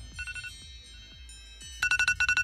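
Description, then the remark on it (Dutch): An iPhone alarm ringtone, set for 6:09 on Thursday 4 November, chimes in quick repeating bursts of bright, electronic tones. It starts soft and gets noticeably louder near the end, with no voices. “En dan hoor je dit. Een alarm.”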